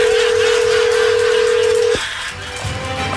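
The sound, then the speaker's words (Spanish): A steady, unbroken telephone dial tone hums at a single mid pitch for about two seconds as a radio show calls someone's ex-husband, then cuts off abruptly, leaving faint line noise with a few soft clicks. “ok, no, no hablen, vamos a marcarle a tu ex marido.”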